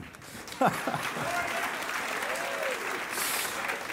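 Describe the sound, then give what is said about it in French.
A church audience, urged to applaud, claps steadily throughout, a dense, even wash of applause with a sharp louder burst early on and a few rising cheers or whoops mixed in. “Soyez des hommes, applaudissez.”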